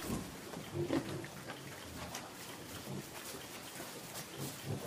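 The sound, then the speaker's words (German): Solar-powered machine pigs built for pig riding grunt and oink in short, irregular bursts against a steady hiss of background noise, with a louder squeal near the start and more grunting scattered throughout. “Die machen ja echte Geräusche, die Schweine.”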